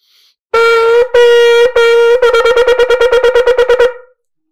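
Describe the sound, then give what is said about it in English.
A shofar sounds loud: shevarim-teruah notes, three medium-length blasts followed by a rapid run of about ten short staccato bursts, with no talking. “So your shvarim true is going to sound like this.”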